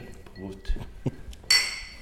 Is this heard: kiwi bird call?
no